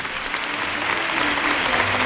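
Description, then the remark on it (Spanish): A bullring crowd gives a steady ovation to bullfighter Diego Urdiales, dense sustained applause with a broad hiss of clapping that holds at a fairly even loudness throughout, with no voices standing out. “Ovación que recoge Diego Urdiales.”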